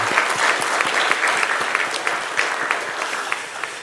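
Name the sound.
audience applauding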